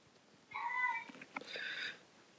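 A cat meows twice in quick succession, a clear two-part call with a rising then sustained tone, heard alone against a quiet background.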